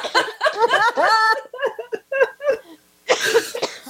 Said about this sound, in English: I'm still coughing, apparently.